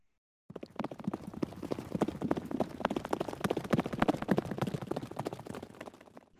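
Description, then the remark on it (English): The hooves of Master Hindley's best horse, taken by Heathcliff, clatter in a fast, steady clip-clop, beginning abruptly and continuing for several seconds before gradually softening as the horse rides off. No voices. “Heathcliff's taken Master Hindley's best horse and he's gone.”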